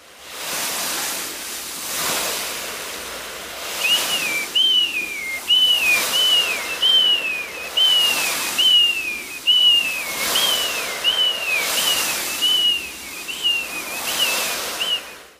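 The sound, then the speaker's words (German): Imitated seaside sounds made by a foley artist: broad, rhythmic whooshing swells like breaking waves, joined after a few seconds by a steady series of high, falling whistled cries mimicking seagulls, all fairly loud. “Es klang wie, wenn man am Meer ist und dann fliegen da halt so Möwen.”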